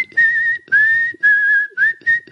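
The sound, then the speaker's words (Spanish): A person whistles the tune from the film Kill Bill, heard when the eyepatched nurse appears, loud and clear, in five sustained phrases separated by short breaths, with gentle pitch slides and no talking. “Con ese silbido mítico.”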